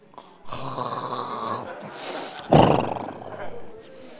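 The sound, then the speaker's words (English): A man's voice imitates the loud snoring of a sleeping person, a long rasping inhale followed by a sharper, gruff burst, continuous over a few seconds. “And when they sleep on their best, they make like a noise.”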